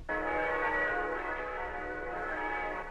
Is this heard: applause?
no